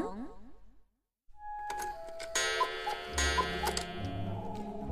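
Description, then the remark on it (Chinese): A clock strikes twelve at midnight in a reading of the picture book Winnie and the Midnight Dragon from the Winnie the Witch series: after a brief pause, ringing bell-like tones with steady ticking, layered over a sustained musical background that swells louder toward the end. “在钟声敲响十二下的时候，女巫温妮说：“女巫们总是在午夜时分上床睡觉。”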